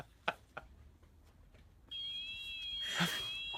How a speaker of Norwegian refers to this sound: Og der går alarmen på klipperen. Alarmen på klipperen går.